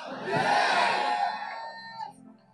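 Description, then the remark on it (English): An audience at a sermon erupts in loud screaming and shouting when the preacher calls on them to scream and bless, many voices overlapping in a dense roar that swells quickly, holds for about two seconds, then fades. “Somebody scream and bless.”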